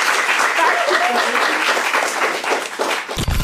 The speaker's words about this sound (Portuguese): E plateia, uma salva de palmas para os nossos